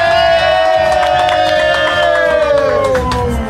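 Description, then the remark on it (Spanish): A large crowd shouts and cheers loudly and continuously, a dense roar of many voices with high-pitched screams rising above it, sustained throughout. “Ay, ay, ay, ahora sí gritan, eh, ahora sí gritan.”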